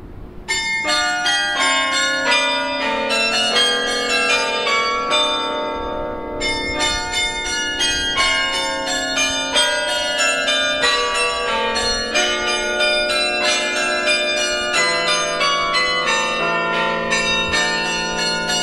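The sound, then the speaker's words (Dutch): Church bells ring out continuously and loudly outdoors in the wind, playing a specially arranged piece: many overlapping bright, resonant tones in a flowing melody, their long shimmering overtones blending together with no voices present. “Heel bijzonder hoe die, hoe die klokken doorklinken.”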